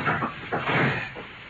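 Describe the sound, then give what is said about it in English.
A window that was fastened on the inside, with a solid framework, being opened: a rough, grinding scrape that comes in several uneven rasping pulses over about a second and a half, moderately loud, with no voices. “I'll just open it.”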